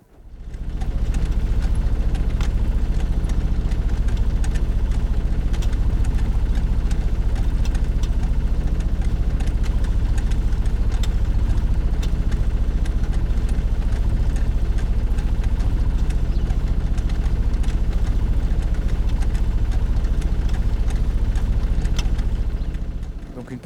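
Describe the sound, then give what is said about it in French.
A lift pump runs steadily throughout, a loud, continuous mechanical drone with a deep low hum and constant rattling vibration, unchanging from start to finish. “La pompe de relevage, bruit fort marron plage.”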